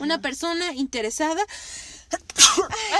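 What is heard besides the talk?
sneeze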